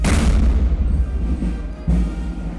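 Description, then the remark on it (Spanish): A 21-gun cannon salute fired as military honors for President Abinader at the 179th anniversary of national independence: a deep, heavy boom opens, rolling into a low rumbling echo, then a second blast lands about two seconds later, loud and booming outdoors with no talking. “Junto a la vicepresidenta de la República, Raquel Peña, entre otros funcionarios, recibió los honores militares correspondientes con las salvas de 21 cañonazos.”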